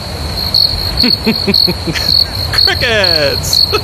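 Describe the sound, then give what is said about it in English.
Crickets chirp in a steady, high-pitched trill that runs unbroken from start to finish, with a few brief pulsing calls and clicks layered over the constant drone. No one speaks. “Well, let's begin with my favorite one. Crickets.”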